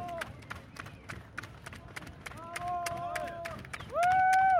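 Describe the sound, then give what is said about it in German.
Spectators cheer and clap at the finish of a women's cycling race stage around the Bertholdsburg over 82.5 kilometres, welcoming riders from 17 teams at about 20:15, with sharp scattered claps under rising shouts and whoops that swell midway and surge to a loud, sustained cheer at the end. “Aber ganz toll, wie das Publikum hier mitgespielt hat.”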